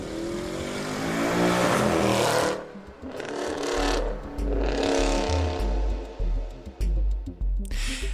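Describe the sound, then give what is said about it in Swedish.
A powerful one-year-old Mercedes AMG sports car engine with 510 horsepower revs hard in repeated bursts, roaring up and dropping back with a deep rumble, loud, with no voices. “Och det handlar om en sån här värstingbil med 510 hästkrafter.”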